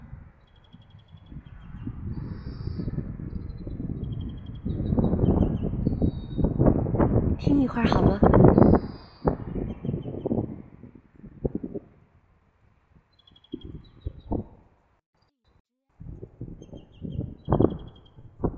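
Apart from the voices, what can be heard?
birdsong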